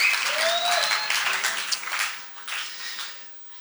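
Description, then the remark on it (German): A burst of audience applause, many hands clapping in a dense wash that swells at first and gradually thins out, with a couple of faint whistles near the start. “Applaus für dich.”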